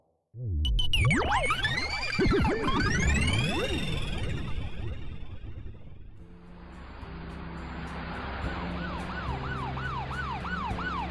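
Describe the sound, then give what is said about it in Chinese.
A police car siren wails loudly as police cars escort the national treasure Siyang bronze fangzun to a museum, its tones sweeping up and down over a rumbling engine, then shifting to a steadier, rapidly repeating rise-and-fall pattern. “警车护送着国宝四阳青铜方尊和小盲道他们来到了博物馆，经过内部通道，直接把车子开进了内部车库。”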